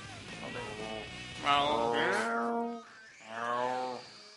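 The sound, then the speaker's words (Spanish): A cat meows twice, a long, wavering meow followed after a short pause by a shorter one, with a low background hum beforehand. “El gato dice que sí, pero no entiendo.”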